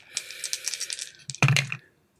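Dice are rolled for a paradox roll, a mind roll, in a game, rattling and tumbling in a quick series of light, sharp clicks, ending in a louder clattering burst before going quiet and coming up a one and a six. No one speaks.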